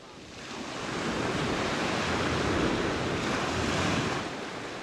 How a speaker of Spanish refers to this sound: Estas olas del mar que se escuchan son las de la playa de Siches, durante todo el año una encantadora ciudad mediterránea